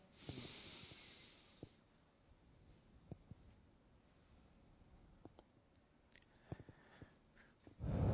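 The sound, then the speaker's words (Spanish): A slow, deep breath drawn in as preparation, followed by a long quiet stretch with faint clicks and a louder breathy exhale of all the air at the end. No one speaks. “Nos preparamos tomando una respiración profunda.”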